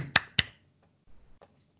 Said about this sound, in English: You have to clap when you see something you like. So I'm clapping for Porsha. Oh, let me put my iPad down. I'm clapping for you, Porsha.